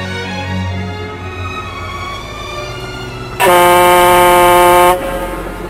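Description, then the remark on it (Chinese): A factory whistle signaling the end of the work shift sounds over a steady mechanical rumble of factory machines: one loud, sustained, high-pitched blast lasting about a second and a half, then cutting off abruptly as all the machines stop. “好不容易等到下班的汽笛响了，佩林才松了一口气。”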